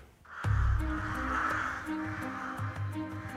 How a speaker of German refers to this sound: Die dunkle Krähe, das unheimliche Wesen